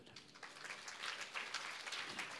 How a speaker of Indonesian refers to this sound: Tepuk tangan buat Tuhan.